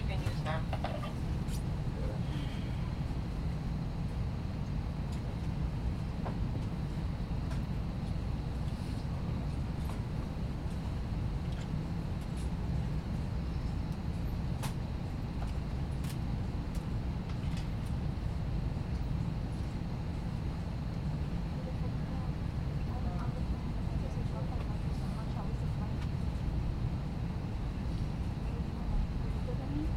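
Steady low rumble inside a JetBlue airliner cabin while taxiing for takeoff on a flight from Fort Lauderdale to San Juan, Puerto Rico, a constant engine drone filling the space, with faint clicks and soft indistinct murmurs scattered throughout.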